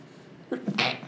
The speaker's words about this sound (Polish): Na zdrowie. Dziękuję. Przepraszam najmocniej. To nie koronawirus.